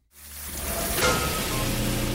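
Water pours and splashes steadily inside a family's house from a burst pipe, spraying down from above, a dense continuous hiss that fades in quickly and holds at a strong, even level with no voices.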